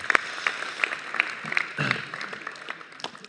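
An audience applauds steadily, a dense patter of many hands clapping at moderate volume, with a few sharper claps standing out, and no talking.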